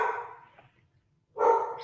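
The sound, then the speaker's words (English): A pet dog barks twice, loud, the first bark trailing off before a short silence and then a second sharp bark. No one speaks. “Sorry, my dog's barking.”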